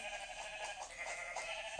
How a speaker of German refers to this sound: Ja, hier sind Schafe. Gut. Und ein Babyschaf.